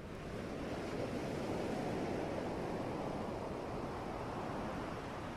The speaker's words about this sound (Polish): W trakcie ćwiczenia usłyszysz szum fal, który będzie odmierzał 5-sekundowe wdechy i wydechy, a przerwy pomiędzy falami będą odmierzać czas na wstrzymanie oddechu.